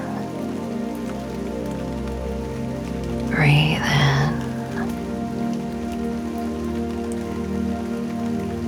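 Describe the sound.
Steady rain patters on a surface throughout, a continuous soft hiss with fine droplet texture. A calm voice guiding a sleep meditation speaks briefly and quietly over it partway through.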